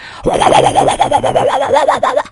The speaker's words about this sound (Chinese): 这煮饺子的声音这么特别呀？连起来会怎么样？ 连起来就是呱呱呱呱呱唧呱唧呱唧呱唧呱唧，突突，咕咕咕噜咕噜咕噜咕噜咕噜咕噜咕噜咕噜咕噜。